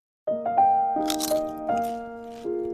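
A few crisp crunching bursts, like biting into something crispy, break out over a steady, sustained musical tone whose pitch shifts in steps. The crunches are brief, close and moderately loud.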